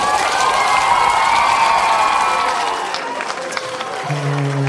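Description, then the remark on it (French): A large audience cheers and shouts in a loud, dense roar of many voices for about three seconds, then the crowd noise thins and a steady low tone comes in at the end. “En tout cas, vous criez fort en masse, je suis sûre que ça va sonner full dans, la, dans le chapiteau.”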